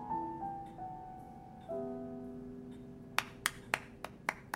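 A 65-year-old man finishes a piece on the piano, sustained notes ringing and fading, then a woman sitting on the sofa claps six times in a steady, moderately quick rhythm, each clap a sharp, crisp snap standing out clearly over the fading tone.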